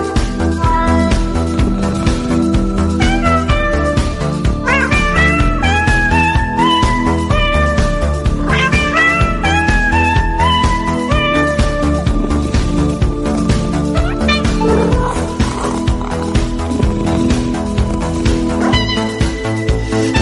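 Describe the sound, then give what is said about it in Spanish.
A song built from cat meows, each pitched mew sliding upward like a sung note, strung into a bouncy melody over a steady, loud rhythmic backing that plays continuously throughout. “yo he elegido esta canción hecha por gatos. Hecha por gatos. Hecha por gatos, por el, maullar del gato.”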